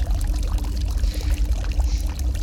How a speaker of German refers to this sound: Also ich kann gern dazu sagen, ähm, das Geräusch des Brunnens regt äh, so manche Sachen in mir an und das finde ich jetzt nicht persö persönlich echt nicht gut.